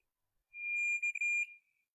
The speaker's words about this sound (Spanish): Y la idea es que escuchen ustedes una chicharra, un sonido, eh, yo aquí estoy en este momento con un monitor y bueno, pues necesito que me confirmen bien si se escucha el ruido de la chicharra directamente al aire. ¿Sí? Ahí está.